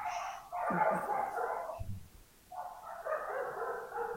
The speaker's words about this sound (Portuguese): É os cachorrinhos da Ju. É, é a cachorrada.